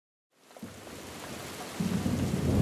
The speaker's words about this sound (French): Dehors, il pleut. Il pleut fort. Une pluie torrentielle, diraient les météorologues. Il fait gris et le ciel est noir.